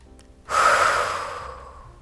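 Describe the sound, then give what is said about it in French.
A single deep, airy breath, a big inhalation rising abruptly after a short quiet moment and then slowly fading away over about a second and a half. “Si par exemple vous prenez une grande inspiration”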